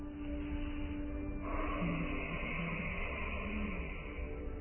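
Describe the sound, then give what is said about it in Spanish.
A slow, throaty ocean breath with air vibrating in the throat, a steady rushing hiss of air that swells slightly partway through and continues unbroken, with no talking. “Bien, esta es la respiración oceánica que calma tu mente.”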